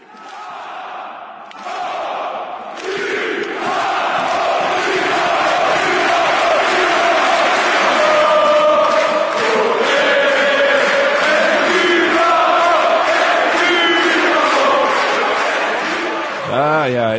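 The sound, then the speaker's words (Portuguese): A large crowd of Borussia Dortmund football supporters in a stadium chants in unison, singing in homage to the name of Napoli, a loud, sustained roar of many voices rising and falling in a rhythmic, sing-along pattern that carries on throughout. “E do Borussia Dortmund, que ouviremos um áudio, né, Torcido do, do Borussia Dortmund cantando é, um, cantando em homenagem o nome do Napoli.”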